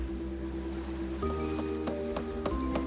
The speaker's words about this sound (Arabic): هل سمعت يا شهاب؟ كأنه صوت خشب يتحطم يا ويلي حانت لحظة الحقيقة السفينة تتداعى